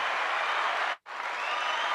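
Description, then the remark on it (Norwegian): A steady burst of dense applause from a sizable crowd, loud and continuous, broken only by a very brief dropout halfway through before the clapping resumes at the same level. “Vent, jeg tror vi trenger en eh, applaus, eller?”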